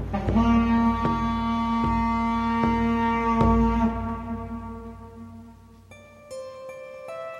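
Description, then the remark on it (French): A village's foghorn blasts in one long, loud, droning tone rich in buzzy overtones, then shifts to a thinner, higher note near the end. No voices are heard. “Peut-être même que notre corne de brume suffira à les faire fuir.”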